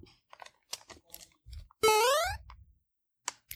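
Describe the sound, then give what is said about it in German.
A single bright, rising 'boing'-style sound effect of a video game character jumping, loud, sweeping upward in pitch for about half a second, surrounded by faint clicks and crunchy rustling. “Richtig, Mario, springt.”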